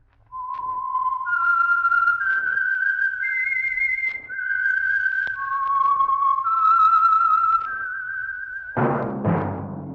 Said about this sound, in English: That whistle is your signal for the Signal Oil Program the Whistler.